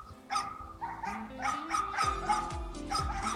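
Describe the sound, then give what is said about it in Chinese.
Several dogs, both stray and leashed, bark and yip at one another in quick, overlapping bursts, mixing sharp higher yelps with deeper woofs in an excited, continuous exchange as they greet, in a park near Beijing's Fifth Ring Road on a cold day. “这附近还有几只狗，野狗和引领的的狗，它们见面的时候就会这样。”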